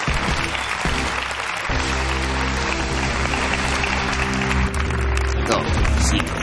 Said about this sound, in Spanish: Un aplauso de consolación para Pablo Ibarburu.